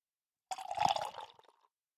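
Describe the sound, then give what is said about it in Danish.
Dark imperial stout beer from a can pours into a glass in a short splash of liquid, bubbling and fizzing for about a second before trailing off into a few faint drips. “Så jeg vil nøjes med at hælde op.”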